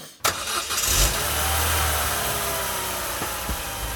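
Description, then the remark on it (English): A car engine catches with a sudden loud burst, then rumbles and revs steadily, with a thin, high tire squeal faintly riding over the roar as it pulls away. No talking. “a squeal of tires, and off you go.”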